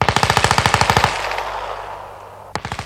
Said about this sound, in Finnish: Joskus kuului hiljaista valitusta ja heti sen perään nakutti rokan konepistooli.